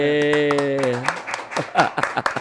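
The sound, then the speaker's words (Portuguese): A quick round of hand clapping for deputy Elisandro, sharp, uneven claps landing close together, with a sustained tonal voice sound at the start and people talking over the applause. “Ah lá, uma salva de palmas pro deputado Elisandro.”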